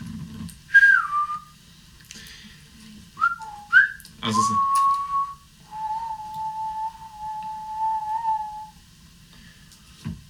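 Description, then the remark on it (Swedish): A person whistles to call animals: a few short rising and falling notes, then one long, steady whistled tone. A low rumbling background runs underneath, and a voice briefly speaks at the start. “Jag visslar på dem.”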